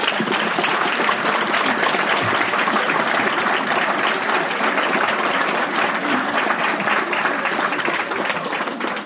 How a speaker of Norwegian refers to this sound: Vi må først klappe, selvfølgelig.